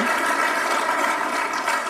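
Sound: audience applauding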